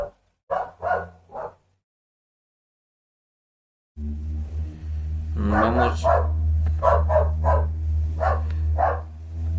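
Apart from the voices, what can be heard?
dog barking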